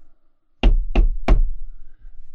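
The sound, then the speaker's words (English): Three sharp, evenly spaced knocks on a frosted post office window, loud, with a hard rap to each strike and a brief ringing decay afterward. “on the window.”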